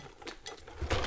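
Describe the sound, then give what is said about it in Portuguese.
Ice cubes clatter and clink as a waitress handles them, putting ice into sparkling wine, a few quick rattling bursts ending in a louder jumble of knocks. “Ah, isso aqui é o gelinho da garçonete, né?”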